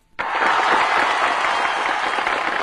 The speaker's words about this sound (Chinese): 我要把掌声送给这些清醒的网友啊！